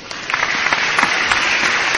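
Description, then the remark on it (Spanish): A steady burst of applause sound effect, dense overlapping claps forming a loud, continuous crackling wash that holds at an even level for the full two seconds, with no voices. “Mm, ah, ojo, ojo, acaba de venir un piloto, se acaba de inscribir un piloto ruso, precisamente ruso, precisamente, precisamente ruso, y esto se merece, pues, unos aplausos.”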